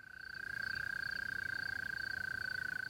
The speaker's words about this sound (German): Und der Laubfrosch quakt zur Brautschau.